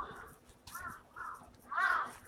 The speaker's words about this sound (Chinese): 这边有啊，你听还有乌鸦，对，因为这个老的建筑上这些这些东西特别多